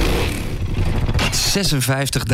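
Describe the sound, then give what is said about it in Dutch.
A 56-year-old BSA motorcycle engine rumbles steadily with a deep, throaty drone, and partway through a voice starts talking over the running engine. “De BSA, die een jaartje ouder is dan ik. Ja, 56 jaar oud is deze.”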